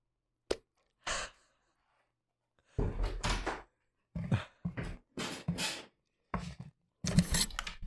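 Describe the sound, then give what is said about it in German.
A door is shut with one short, sharp thud, followed by a series of louder, irregular bursts of muffled noise and movement. “Meine Freundin ist gerade nach Hause gekommen, ich muss okay. einmal die Tür zumachen.”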